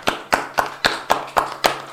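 Hands clap in a steady, even rhythm, about seven crisp claps over two seconds, moderately loud, with no talking: a round of applause welcoming a guest at the start of an interview.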